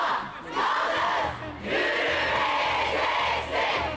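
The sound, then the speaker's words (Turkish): A large crowd chants loudly in unison at a protest march in Eskişehir, Turkey, called by the Democratic Women's Platform and held in the rain, voices rising in repeated rhythmic phrases with short dips between them and a steady wash of mixed voices throughout. “Eskişehir'de Demokratik Kadın Platformu çağrısıyla geniş katılımlı bir yürüyüş gerçekleşti.”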